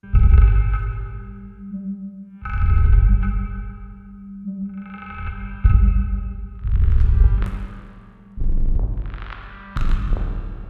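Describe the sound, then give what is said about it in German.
Electronic music played on a custom-programmed sound system of self-made instruments, with sustained synthetic tones and deep throbbing bass in repeating phrases, shifting toward sharper percussive hits and brighter ringing sounds in the second half; loud, with no voices. “Sechs Monate hat Farahnas Haddam an ihrem ganz eigenen Klangsystem programmiert”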